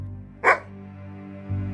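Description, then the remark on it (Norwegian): A single sharp dog bark rings out, short and fairly loud, over a low steady hum, followed by near silence. “hvem vil dere ha til konge her? Trillen min eller hunden min?”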